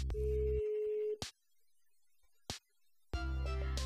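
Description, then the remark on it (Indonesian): An outgoing WhatsApp call ringing unanswered: a steady electronic ringback tone sounds for about a second, then silence broken by sharp clicks, before another tone burst starts near the end. “sebentar kita tes telepon ya kita coba tes telepon berdering coy mohon maaf ini saya teleponnya pakai WhatsApp nggak diangkat ya.”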